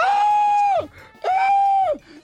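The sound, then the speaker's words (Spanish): A voice imitates a woman screaming: two loud, sustained high-pitched cries, each held steady for under a second before dropping off, with a short pause between. “Y la señora gritando.”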